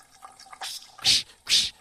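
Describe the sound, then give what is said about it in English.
A sink faucet, turned back on after the water was shut off and the pipes filled with air, sputters and spits as air escapes, with two loud hissing bursts of spray after some smaller gurgling spurts, harsh, with no one talking. “When they turn off your water, all your water pressure goes away, and your uh, pipes, your water pipes, fill up with air.”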